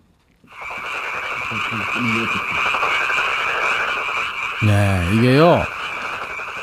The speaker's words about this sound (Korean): 아, 5, 6월쯤 될까요? 그러면 이제 그 밤에 개구리 소리가 이렇게 들리죠. 개구리 소리입니다.